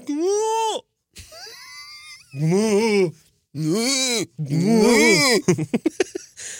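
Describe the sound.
A person imitates a wildebeest (gnu) call with several drawn-out, nasal moaning grunts that rise and fall in pitch, separated by short pauses, ending in a quick burst of choppy sounds, loud.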